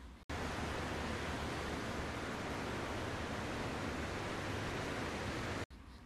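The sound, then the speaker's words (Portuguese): A steady, hollow rushing hiss like the sea murmur heard when holding a large seashell, picked up from the sand, to the ear, continuous and even for about five seconds, then cutting off abruptly. “Coloque isto no seu ouvido. Consegue escutar?”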